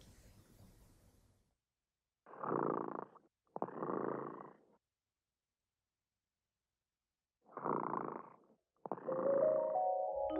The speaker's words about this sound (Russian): Кот Ремота сладко спит песенку свою урчит.